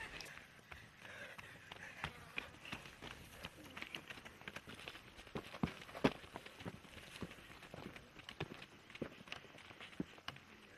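Quick, uneven footfalls of several girls running in a rigüeta race game, a steady patter of steps with occasional sharper hits, carrying on throughout with no one speaking, in San Ignacio in the upper sierra.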